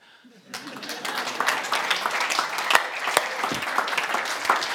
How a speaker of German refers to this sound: alle Männer wollen jetzt klatschen.